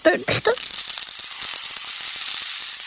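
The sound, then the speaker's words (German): Steady sizzling of peeled, cut pumpkin frying in a pan with onions and garlic, a continuous crackly hiss, with a brief stretch of someone talking at the very start before the sizzle carries on alone. “Dann kommt das in die Pfanne. mit Zwiebeln und Knoblauch.”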